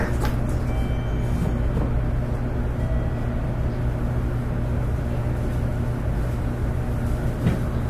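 A steady, continuous low rumble and hum of a JR 811 series electric train on a rapid service from Orio to Kashii, running along the tracks, heard from inside the car, with no voices and a constant loudness throughout.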